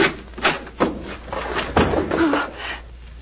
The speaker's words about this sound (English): Open the door of this closet.